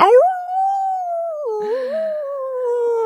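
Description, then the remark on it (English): A person imitates a dog's howl in one long, loud wail, holding a steady pitch, dipping briefly midway, then rising again. No talking. “To get you guys barking at each other, get you, you howling at the moon”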